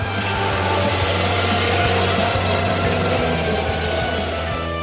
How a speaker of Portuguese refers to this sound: Vamos, vamos embora, porque só tá, assim... Só tá vinheta não que é bom escutar esses carros correndo, né?